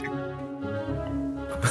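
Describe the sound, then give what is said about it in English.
A person imitates a zombie dog's growl with a low, strained, rumbling vocal sound that holds steady for nearly two seconds before ending in a harsh, breathy burst. “And I I was ready, so I was just gonna growl.”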